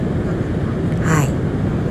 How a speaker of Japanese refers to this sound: 私は今日本に向かっている、えー、飛行機の中からこのポッドキャストをね撮っています